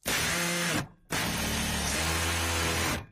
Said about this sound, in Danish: Nå, så lad os gå videre til noget, som er rigtig, rigtig godt. Yay! Nemlig lyden af en boremaskine.